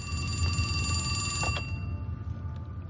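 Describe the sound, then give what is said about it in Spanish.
A telephone in a dining room rings in front of the characters Berlín, Helsinki and Tokio, a bright, metallic bell trill sustained for about a second and a half before cutting off, leaving a low rumbling hum and faint scattered noises. “En el comedor, el teléfono suena ante Berlín, Helsinki y Tokio.”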